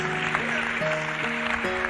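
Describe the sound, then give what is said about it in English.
A crowd claps hands steadily in a dense, continuous patter, with sustained organ-like chords shifting beneath it. No one speaks. “Clap your hands, somebody.”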